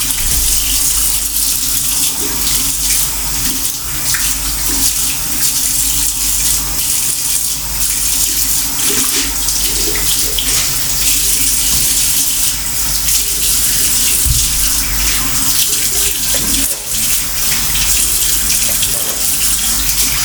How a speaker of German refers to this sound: ein bisschen Wasser laufen lassen. Fertig.